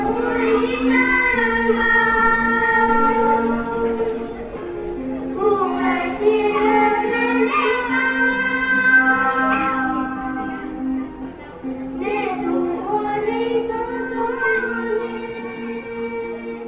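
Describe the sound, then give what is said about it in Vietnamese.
A Hmong folk song sung by a single voice in a slow, plaintive melody with long held notes that bend and slide, carried over a steady low drone, continuous throughout. “Bài hát tiếng mông này như một lời thở than về số phận.”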